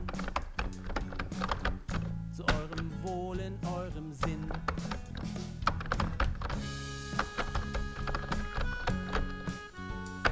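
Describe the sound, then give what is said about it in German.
Irregular bursts of clicky taps as a father types on a computer keyboard while searching for something on his computer, rattling along steadily for about ten seconds over a soft, sustained musical background. “Dann fängt er an, an seinem Computer etwas zu suchen und tippt auf der Tastatur herum.”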